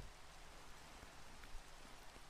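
Steady rain falling, a dense, even hiss of drops with a few slightly louder patters, continuous and fairly quiet, with no voices.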